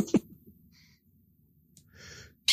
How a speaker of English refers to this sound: I got a bird that won't shut the fuck up all of a sudden. Jeez, she knows it's bedtime.